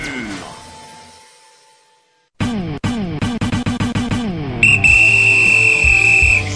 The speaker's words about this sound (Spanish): Ahí tenemos el silbatazo de regreso.